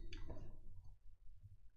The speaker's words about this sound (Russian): Сука, блядь! Пролил стакан воды.